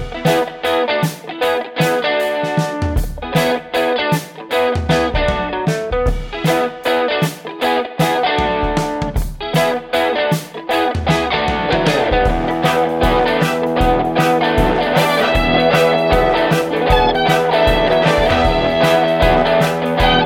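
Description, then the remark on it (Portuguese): A loud, energetic intro jingle plays for about twenty seconds: driving music with a steady pounding beat and gritty, distorted-sounding instruments, with no one talking over it. “Solta a vinheta aí, ó.”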